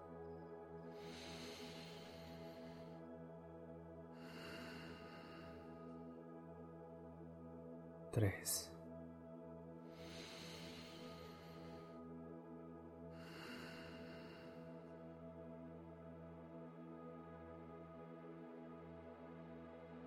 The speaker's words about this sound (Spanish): Empieza haciendo tres inhalaciones y exhalaciones profundas y lentas.